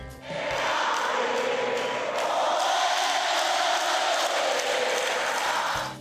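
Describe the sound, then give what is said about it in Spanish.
A large crowd of fans at a rock concert in the Auditorio Nacional welcomes the band with sustained applause and cheering, a dense, steady wash of clapping and shouts that swells in quickly and holds loud for several seconds before easing off. “Con aplausos y un ambiente festivo, los fans de esta banda les dieron la bienvenida en el Auditorio Nacional.”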